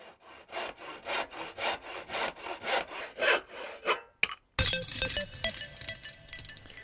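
A hand saw cuts through wood in about a dozen steady, rhythmic back-and-forth strokes, close and fairly loud, before a brief pause and a burst of bright clinking, ringing noise.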